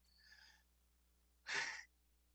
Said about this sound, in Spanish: Respirando. Respirando contando hasta seis Seis y exhalamos. Porque al inhalar de manera consciente, llevamos oxígeno a la sangre y eso hace que la puerta del el neocórtex pueda filtrar y pueda contener más bien esas em-, descargas emocionales